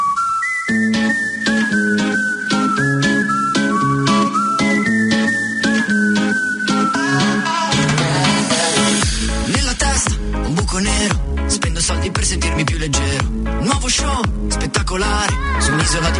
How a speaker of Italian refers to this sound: una canzone ed è una canzone abbastanza carina che ho sentito oggi